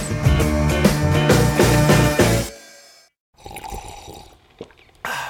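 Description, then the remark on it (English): Morning coffee pours loudly for a couple of seconds, then stops; after a brief near-silence come softer small liquid and cup sounds, ending with a sharp clink. “That's not just the sound of that first sip of Morning Joe.”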